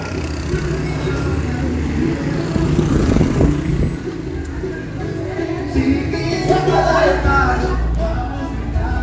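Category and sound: vehicle, motorcycle passing by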